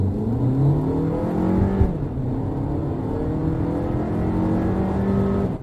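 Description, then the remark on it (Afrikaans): The 1.4 turbo petrol engine (110 kW, 250 Nm) of a front-wheel-drive Volkswagen 1.4 TSI Comfortline accelerates hard, its droning pitch climbing steadily, dipping briefly as the DSG automatic gearbox changes gear, then rising again. Loud and continuous, with no voices. “Sy 1.4 turbo petrol skop 110 kW en 250 Nm uit, heeltemal voldoende.”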